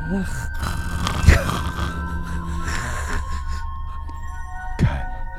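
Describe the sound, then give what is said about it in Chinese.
A voice imitates a ghost's snoring with low, rumbling, drawn-out throat sounds, broken by a couple of sharper bursts, over a steady background hum and tones for about five seconds. “你听到这个声音，就知道鬼的打呼声。”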